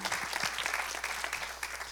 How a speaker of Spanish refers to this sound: un fuerte aplauso a su Dios en este día.